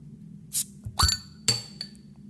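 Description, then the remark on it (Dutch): A small beer bottle cap drops as the bottle is opened and clinks against a hard surface several times, bright metallic or glassy ticks and bounces, with no talking. “Dat was het dopje die viel.”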